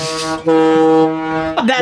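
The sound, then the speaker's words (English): A loud, steady horn-like tone from Phone Boy's Prius pulling up behind holds for over a second, cuts briefly, then returns with a quick swooping pitch bend at the end, with no talking. “Uh, so that's, this is the sound of of Phone Boy's Prius pulling up behind you.”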